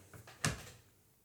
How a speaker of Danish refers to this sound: Buk, buk, buk, buk, buk. Kan I høre det? Der er nogen, der banker på.